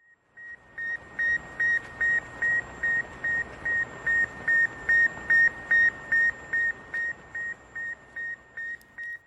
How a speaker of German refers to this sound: Am 4. Oktober 1957 startete die Sowjetunion den ersten Satelliten ins All, den berühmten Sputnik-Satelliten, dessen Radiosignal ihr gerade hier gehört habt.